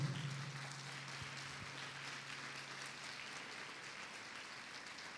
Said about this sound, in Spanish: Si usted lo cree, le da palmas fuerte al Rey de la Gloria.